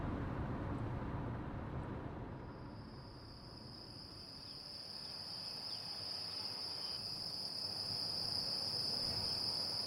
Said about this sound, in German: So klingt die Stille in Soria, einer Provinz in Zentralspanien, nördlich von Madrid.